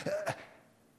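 A sharp sneeze comes in two quick bursts, the second a bit louder, then fades into quiet room tone. No one speaks.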